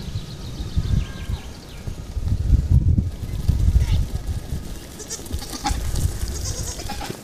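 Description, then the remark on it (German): A herd of goats tramples past in front of the speaker, their hooves making a dense, continuous patter and scuffle over several seconds, with faint bleats and a voice in the background. “Hört ihr das Trappeln der Ziegenhufe?”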